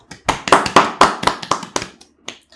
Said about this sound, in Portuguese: Epá, não devemos ter batido palmas, picou aqui um bocado, desculpem.